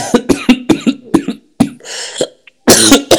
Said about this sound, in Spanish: Ay, Dios, me dio un ataque de tos, lo siento.